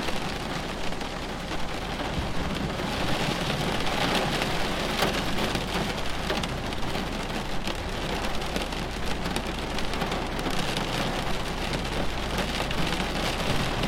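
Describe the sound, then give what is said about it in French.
Steady, dense rain pours onto hard surfaces during a thunderstorm, a constant hiss with scattered drips and a low rumbling undertone, continuing evenly throughout with no voices. “Votre attention, concentrée sur le bruit de l'orage, vous a fait oublier le stress et les tensions accumulées.”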